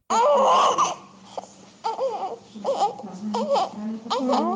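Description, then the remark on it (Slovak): A newborn baby cries on 28 July, the day of its birth, in a series of short, wavering wails separated by brief gasps, loud at first and then coming in repeated bursts. “28. júla sa ozval tento plač.”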